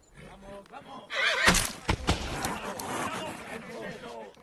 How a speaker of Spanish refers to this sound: Un caballo muy rebelde, señor. Es un pura sangre, coronel. ¿Ah, sí? El ejército ha domado caballos salvajes. Y este no será diferente.